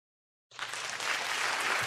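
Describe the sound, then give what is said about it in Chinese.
After a brief silence, an applause-and-cheering sound effect kicks in and holds steady, a dense, bright wash of clapping that stays loud and even to the end, with no one talking. “我接受全民的欢呼。”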